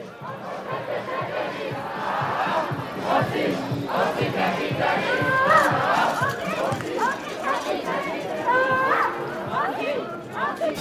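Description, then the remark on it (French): A large climate march protest crowd chants and shouts together outdoors at Place Gralin, where the demonstration ended with dancing and singing, voices rising and falling in loose rhythmic bursts over a constant dense babble of talk, loud for the whole stretch. “Nous avons donc euh, rencontré pardon, plusieurs individus au sein de la manifestation qui s'est finie sur la place Gralin en dansant et en chantant.”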